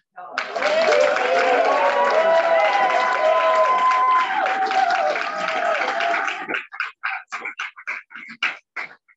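A crowd breaks into loud, sustained applause with cheers and whoops for several seconds, then it thins out into a few scattered, separate claps before fading.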